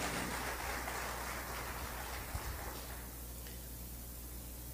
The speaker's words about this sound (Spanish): Denle fuerte ese aplauso a Dios esta hora.